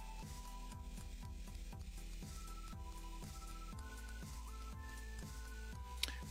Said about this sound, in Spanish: ¿Se escuchan sus patitas? Ah, entonces, este, ese ruido que están escuchando es unas patitas del ganso. Ahorita lo vamos a quitar, lo que pasa es que es muy divertido y lo vamos a dejar un ratito, ¿eh?